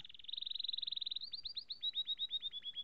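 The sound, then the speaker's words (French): A male canary sings alone, opening with a fast, buzzy trill of high notes that shifts into a slower run of repeated, sweeping chirps, clear. “Du chant du canari à la régénération du cerveau”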